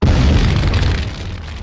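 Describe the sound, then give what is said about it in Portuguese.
A loud fireball explosion sound effect: a heavy, rumbling blast with deep bass that roars at full strength and barely fades over its short duration, with no voices. “Falando de novo, solta a bola fogo do futuro.”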